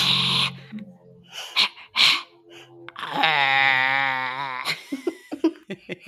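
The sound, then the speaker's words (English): Two people vocally imitate bison, with huffing snorts and grunts, then a long drawn-out moaning bellow, followed by short breathy bursts that trail into laughter. “Let's make some bison noises.”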